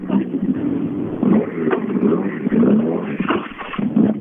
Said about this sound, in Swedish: Och inget krångel med, inget krångel med bil eller sådär? Ja, den går inte riktigt som du hör. Ja, jag får gasa. Gasa hela tiden.